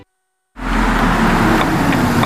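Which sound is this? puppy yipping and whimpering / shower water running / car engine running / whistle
car engine running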